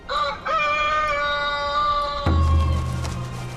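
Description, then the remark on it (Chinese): A big rooster in a film crows once, a loud, sustained call of about two seconds that starts with a brief rising note, then gives way to a low, rumbling noise. “我觉得它这里面最强烈的符号应该是大公鸡，它外在的羽毛很漂亮啊，很张扬。”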